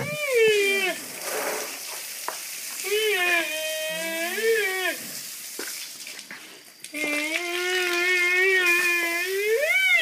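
A Sumatran rhinoceros gives a series of long, wavering squeaks and hum-like whistling calls, rising and falling in pitch, over a steady wet, splashing background, with no talking.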